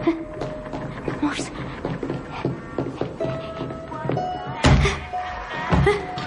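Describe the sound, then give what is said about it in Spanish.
A door to a supermarket storeroom opens and closes with two heavy thuds near the end, fairly loud, over a busy background of murmuring voices and ambient noise. “Van hacia una puerta.”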